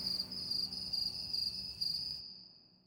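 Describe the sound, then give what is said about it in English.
Crickets chirp in a steady, pulsing rhythm, clear with no voices, before the sound cuts off abruptly after about two seconds, leaving silence. “He waits for a response, and crickets.”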